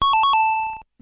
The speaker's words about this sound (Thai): มีดที่อยู่ในครัวของเรานะครับก็มีเอาไว้ใช้สำหรับหัน่นสับซอยนะครับ และมีดจะทำงานได้ดีถ้ามีดคมมากๆครับ การจะทำให้มีดคมได้ก็ต้องมีการรับมีดและเมื่อไหร่ที่เรารับมีด เสียงก็จะเป็นแบบนี้นี่แหละครับ